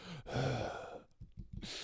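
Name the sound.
imitated heavy breathing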